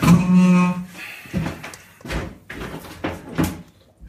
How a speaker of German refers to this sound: Erstmal solltet ihr eurem Halbling beibringen, dass wenn er Türen öffnet, sie auch durchaus geschlossen werden können.